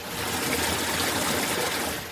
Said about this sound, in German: Hier, ach hier übrigens, ich bin jetzt gerade wieder an der Stelle, wo bei mir in der Nähe hier, da ist so ein Wasserrohr, was einfach durchgängig läuft.